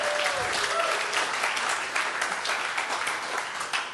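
Steady, dense applause from a sizeable audience welcoming a band, loud and continuous for the whole stretch, with a few faint voices mixed into the crowd noise.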